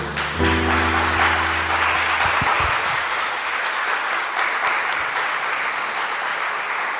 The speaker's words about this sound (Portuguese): Se você crê, aplauda ao Senhor, amém?